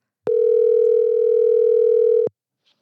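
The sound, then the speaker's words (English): A telephone dial tone sounds while a call is being placed: one steady, loud electronic hum lasting about two seconds, starting and stopping with faint clicks, and no voices. “once I get him on the phone, we will explain the title Hercules”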